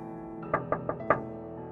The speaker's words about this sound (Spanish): Salté cuando escuché que alguien tocaba el vidrio de mi ventana y me limpié las lágrimas del rostro.